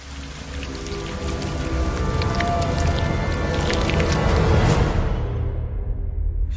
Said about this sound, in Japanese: 島田秀平とオカルトさんだからジングル怖いんだって スタジオでさやってる僕が怖いんだから深夜一人で聞いてる皆さんとか大丈夫なんですかね